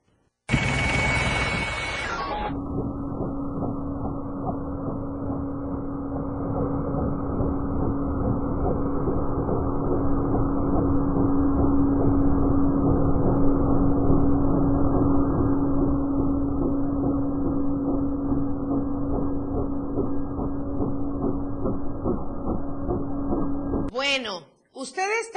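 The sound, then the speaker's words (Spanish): A loud, close helicopter flying at very low altitude over a tourist corridor around Tonalá, Boca del Cielo, Playa del Sol and Puerto Arista drones steadily overhead, its rotor chopping in a dense, continuous rhythm with a low engine hum that holds for over twenty seconds before cutting off. “viendo y escuchando este ruido tan cercano de un helicóptero que volaba a muy baja altura en toda la zona del corredor turístico.”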